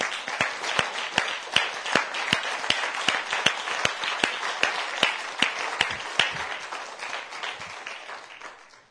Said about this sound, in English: Let us stand together. And let us give God a hand clap of praise, saints.